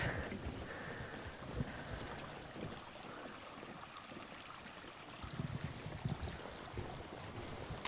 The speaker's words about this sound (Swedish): Passerar vi en liten bäck här.